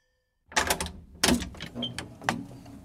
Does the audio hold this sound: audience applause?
no